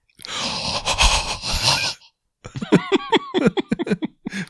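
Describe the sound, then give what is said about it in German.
A person imitates a basilisk's hissing with a long, breathy hissing noise for about two seconds, then follows it with a string of short, voiced growls and grunts in a choppy rhythm. “Du hörst sein Zischen. Mach mal Zischen.”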